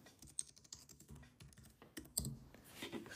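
Rapid clicking of keys on a computer keyboard as someone types an internet search, a quick irregular burst of typing, with no voices.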